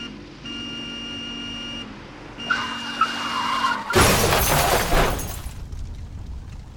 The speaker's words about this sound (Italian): Nei pressi di Ebersbach il veicolo su cui viaggiano è coinvolto in un incidente.